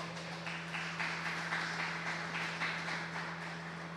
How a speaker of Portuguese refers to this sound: Aleluia, vamos aplaudir Jesus.